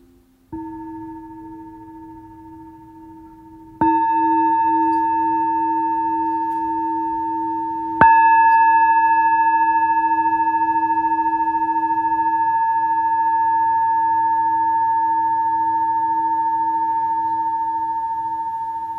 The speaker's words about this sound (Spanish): y después de escuchar el sonido de la campana, cada uno a su propio tiempo va a ir regresando y abriendo los ojos.